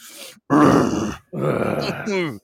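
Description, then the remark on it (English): A voice imitates the grunt of a tired motel front-desk clerk who is eating Cheetos and watching TV, drawn out and low in a couple of loud, rough bursts, ending in a strained, groaning rise, with no other sound around it. “And he grunts.”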